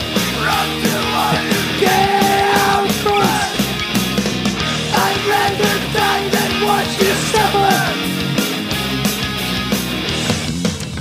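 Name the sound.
music playing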